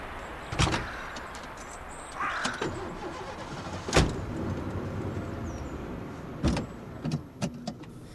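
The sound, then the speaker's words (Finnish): Car doors of a police car fitted with a cage thump shut several times, sharp, over a low steady idling engine as the vehicle starts and runs; a brief whirring rise suggests an electric window or starter. “Meidän auto on tässä ihan lähellä.”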